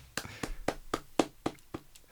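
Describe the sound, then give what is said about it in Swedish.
A slow, steady clap: about eight sharp, crisp hand claps by one person at a microphone, at an even pace, fairly loud against a quiet background with no talking. “Slow clap applåd.”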